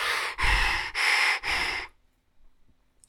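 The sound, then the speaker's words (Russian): Someone imitates breathing through a snorkel tube held in the mouth: four quick, hollow, rasping breaths in a steady rhythm, fairly loud, followed by near silence. “У него была трубка, чтобы дышать, да, ты вставляешь в рот”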